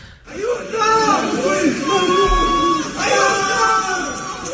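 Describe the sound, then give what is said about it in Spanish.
Several people trapped by flooding in Emilia-Romagna, Italy, shout and scream for help at once, their raised, strained voices overlapping in loud, wavering cries that continue without pause for a few seconds. “Los gritos de ayuda”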